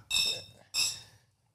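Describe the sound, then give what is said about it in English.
Glasses clink together twice in a toast, each a bright, ringing chime that hangs briefly before fading, with a short pause between the two taps. “Yeah, cheers. cheers.”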